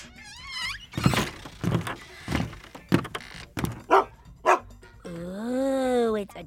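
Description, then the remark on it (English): A junkyard dog lets out a short whine, then a string of about six sharp barks at an uneven pace, ending in a long, drawn-out howling whine. “It's always good to have a junkyard dog as a friend.”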